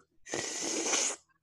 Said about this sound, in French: Entendez-vous? On veut pas le savoir. Là, je suis pas, euh, suis pas en train de licher une chatte. C'est, juste que je salive.